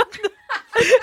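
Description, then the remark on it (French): A voice imitates courgettes sizzling in a hot pan with oil: a few short, breathy hissing bursts, fairly loud, with a chuckling quality and brief gaps between them. “Ça, c'est le bruit des courgettes dans la poêle chaude.”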